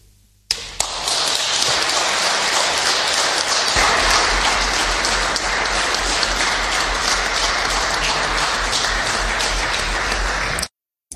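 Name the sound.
applause in parliament chamber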